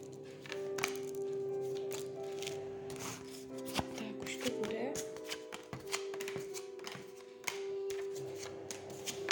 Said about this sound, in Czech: A já už se dívám na vaše fotky, míchám u toho karty a podíváme se teda spolu, co nám Tarot řekne o tomto vztahu.